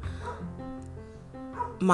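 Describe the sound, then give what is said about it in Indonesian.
A neighbour's dog barks and yelps noisily downstairs, heard from upstairs through an open window: a string of muffled, drawn-out calls ending in one sharper, louder bark right at the end. “Nih anjing tetanggaku lagi menggonggong riuh di bawah sana.”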